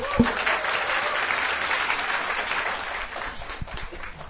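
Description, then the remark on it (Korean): A crowd applauds steadily for about four seconds to welcome a media expert guest onto a lecture programme, a dense wash of many hands clapping at an even level that tapers off slightly toward the end, with no talking over it. “박수를 맞아주십시오.”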